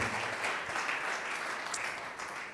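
A crowd applauds in a steady, dense wash of clapping that holds at an even level for a few seconds, a warm burst of welcome with no voices standing out.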